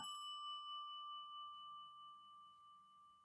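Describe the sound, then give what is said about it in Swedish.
A single bright doorbell chime strikes sharply, then rings on with a steady, slowly fading metallic tone for a few seconds over quiet background noise. “Under spänd förväntan ringde vi på ringklockan.”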